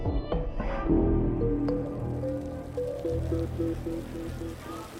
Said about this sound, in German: Die Sonne bringt Wasserfontänen zum Glitzern. Sie springen zu Dutzenden aus dem großen versiegelten Platz vor dem Bezirksrathaus. Sie verebben kurz, sprühen abwechselnd wieder hoch.